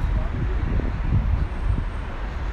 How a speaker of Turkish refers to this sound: Buralar bir trafik olmuş.